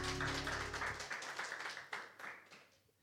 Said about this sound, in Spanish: Un fuerte aplauso para nuestro Señor, para nuestro Rey.